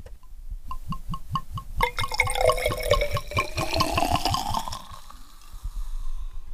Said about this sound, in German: So, jetzt muss ich noch die letzte Flasche füllen.